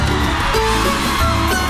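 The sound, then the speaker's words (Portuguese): A large crowd of fans roars and cheers steadily, a dense wall of shouting voices that stays loud and sustained throughout, like an audience at a live show. “Cadê o grito dos meus ousados aí?”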